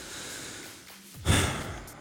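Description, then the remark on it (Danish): A single hard, exasperated breath pushed out sharply through the nose and mouth, fairly loud, after a moment of quiet breathy noise, with no talking. “Vi taler om at bruge hårde vejrtrækninger i samtaler, som jeg lige brugte der.”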